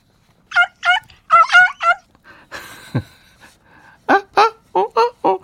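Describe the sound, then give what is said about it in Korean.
A chicken-clucking sound effect, the treasure-hunt sound hidden in a song on a radio show: a chicken clucks loudly in quick, choppy bursts, a cluster at the start and another at the end, with a brief rustling, noisy pause in between and no one talking. “닭 소리예요.”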